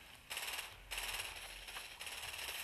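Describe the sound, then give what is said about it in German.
Rapid, rattling video game machine gun fire rips along in dense, continuous bursts, surging louder after short breaks. The fire is loud and close, with no voices over it. “Nein, er hat irgendwie Minigun oder irgendwas ganz krasses.”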